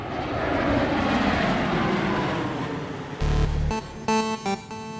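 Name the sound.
airplane landing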